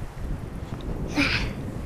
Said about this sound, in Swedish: Det blåser. Det har du rätt i, det blåser.